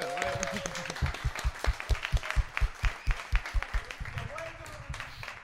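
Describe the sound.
An audience breaks into applause for a guest being introduced, with a run of strong, rhythmic unison claps standing out over a bed of scattered clapping, while voices murmur and cheer briefly near the start and end.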